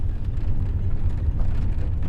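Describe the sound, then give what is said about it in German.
A small electric car drives around a monument, giving a steady low rumble of road and motor noise that holds constant throughout, with no voices. “fährt mit seinem Auto, einem elektrischen Kleinwagen, um das Monument herum.”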